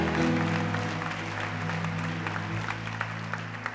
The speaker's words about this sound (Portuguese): Dê um brado de vitória, aplauda o Senhor e adore.